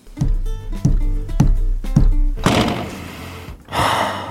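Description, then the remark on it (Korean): Angry stomping footsteps of an older brother: four heavy, booming thuds land in a steady, forceful rhythm, then give way to a loud crashing burst and a second rough, noisy clatter. “방에서 오랜만에 음악 좀 들어볼까 하고 있는데 분노에 찬 큰오빠의 발소리가 들리더군요.”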